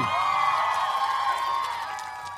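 A dense, steady roar of a crowd cheering and shouting after a live busking performance, loud for a couple of seconds before easing off slightly at the end.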